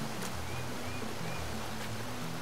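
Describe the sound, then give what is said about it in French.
A steady, unbroken rush of falling water fills the whole clip like a waterfall's roar, with soft low tones humming underneath and no one speaking. “Allez, on y va Waouh C'est magnifique ce qu'il y a derrière cette cascade.”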